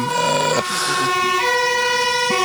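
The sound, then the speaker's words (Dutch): A fire engine siren wails loudly and steadily, its harmonic tones shifting as the truck passes by, with faint traffic rumble underneath and no talking. “Er eh, komt een eh, brandweerauto voorbij.”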